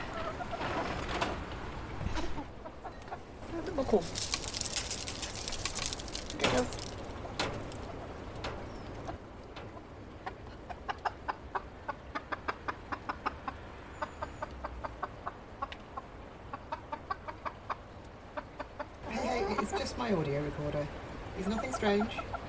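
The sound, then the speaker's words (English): Chickens cluck in short, irregular bursts, with a run of quick, evenly spaced clicks through the middle and gusty wind from Storm Arwen rustling and pulling at the tarpaulin over them in the background. “I know it doesn't look like another chicken.”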